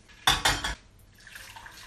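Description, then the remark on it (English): Two sharp metallic clanks of a saucepan being set down on a stovetop to be readied for boiling water, loud, followed by a softer rattle and faint clatter as it settles. “All right, I'll just get a saucepan ready.”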